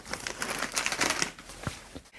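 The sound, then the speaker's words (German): Rustling and crinkling of an outer cardboard carton from a frozen Flammkuchen (tarte flambée) being handled, with a quick series of dry scrapes and taps over about two seconds and no talking. “Ich habe hier auch noch mal einen Umkarton eines Flammkuchens, den mein Sohn schon gegessen hat.”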